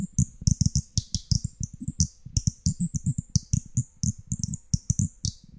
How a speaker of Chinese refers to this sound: 那电视剧里面不是有一个，就是那个螺丝扭一扭，它也是螺丝在拧紧啊，扭一扭然后会发出鸟叫的那个那个小设备嘛？